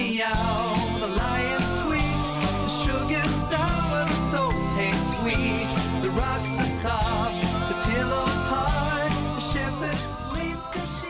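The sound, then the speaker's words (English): An upbeat a cappella song with layered vocal harmonies, bright and steady, its voices stacked over a bouncy rhythmic pulse that stays loud and continuous throughout. “It's really like, you know, a cappella and there's harmonies and all this kind of stuff.”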